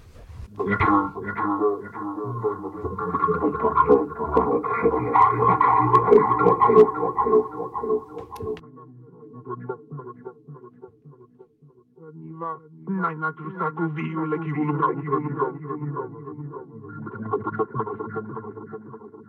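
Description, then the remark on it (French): A heavily processed, eerie female voice, the Banshee's voice from a film score, reworked differently from the earlier films, drifts in sustained, wavering tones with a metallic, effected shimmer, swelling loudly, dipping briefly around the middle, then returning with lower, droning layers. “la voix de la Banshee, qu'on entend déjà énormément dans, le premier et un petit peu dans le, dans, le deuxième, mais qui est retravaillée de façon différente”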